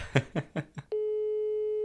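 Four quick dialing beeps, then a steady mid-pitched phone ringing tone that holds on evenly to the end. No one speaks.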